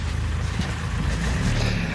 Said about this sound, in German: Jetzt will ein Auto hier vorbei in den engen Straßen. So, ähm, ich laufe hier gerade durch ein kleines Dörfchen. Hier sind die Straßen sehr eng ähm, zwischen den Mauern.